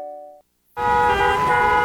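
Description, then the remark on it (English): A short car horn toot, a brief silence, then loud sustained honking from several horns over a dense rumble of traffic, continuous to the end. “Looking for something to take your mind off this traffic?”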